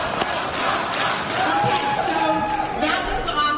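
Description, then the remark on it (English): At the beginning of a televised debate, a large crowd chants "Trump" over and over, loud and steady across a few seconds, with shouting voices and general crowd roar blended together. “They are uh, shouting Trump, Trump, Trump, Trump, Trump, by the way.”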